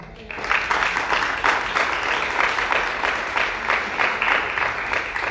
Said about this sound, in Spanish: Amén, aleluya. Un aplauso a Cristo.